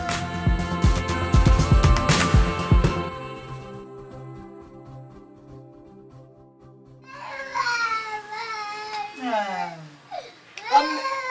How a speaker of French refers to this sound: Mais le bébé s'est mis à pleurer. Pire, il se met à crier, à se débattre.